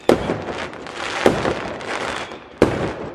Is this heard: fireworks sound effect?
yes